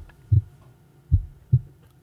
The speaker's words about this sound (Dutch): Ja, hoort u het? Onze hartslag. Want wat doet een hartslag? Of waarom horen we een hartslag? Dat komt omdat er bloed door ons lichaam wordt gepompt.